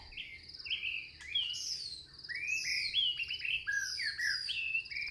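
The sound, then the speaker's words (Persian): Several birds chirp and warble continuously in bright, overlapping calls over a low, steady outdoor hum in a forest, with no voices. “چه صدایی میشنوین بچه ها؟ خوب گوش کنی وای صدای جنگله”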